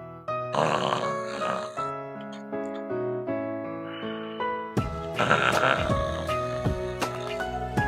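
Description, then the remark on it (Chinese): Loud, rasping snore-like bursts, a narrator imitating a little bear snoring loudly in a children's story, come in two long stretches over a steady, melodic backing of sustained tones, with no talking. “又一会儿，小熊也睡着了，发出了响亮的鼾声。”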